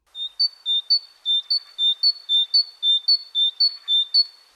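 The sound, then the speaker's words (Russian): A blue tit calls with a rapid, even run of about a dozen thin, high-pitched notes, alternating between two slightly different pitches in a ringing, repetitive pattern. “А второй вариант, потому что она издает звук такой зинь-зинь-зинь.”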